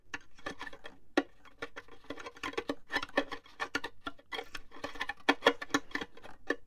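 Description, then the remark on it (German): Dense, irregular patter of short muted plucks on the strings of classical instruments, fingers laid lightly on the strings to block them while other fingers pluck, imitating ants or other insects: dry clicking and ticking with brief gaps and flurries of quick taps. No voices. “Dann legen die die Finger leicht drauf, dass die blockiert sind. Und mit den anderen Fingern zupfen die so dran.”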